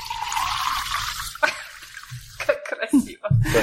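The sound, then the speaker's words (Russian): Water is poured steadily into a glass for about a second and a half, a bright splashing stream, as a person pours water for himself, followed by people talking. “Будете слушать, как я себе водичку наливаю.”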